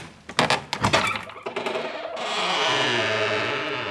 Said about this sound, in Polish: To drzwi do pomieszczenia vis-a-vis jego studia. Widać, że dobrze zna te zawiasy i wielokrotnie wykorzystywał ich brzmienie.